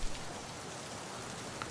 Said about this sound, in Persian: آخه یه دقیقه بشینم زیر این بارون آخش